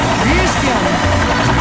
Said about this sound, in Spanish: Vámonos en nuestro helicóptero privado.